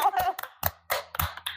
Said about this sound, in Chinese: 我觉得非常棒，为你鼓掌， 耶！